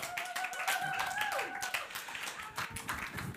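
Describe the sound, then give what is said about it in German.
An audience applauds steadily to see a guest off the stage, many hands clapping in a dense, continuous patter at moderate volume throughout, with a faint sustained tone drifting beneath it. “Ähm, lass uns nochmal mit dem Applaus Applaus verabschieden von der Bühne.”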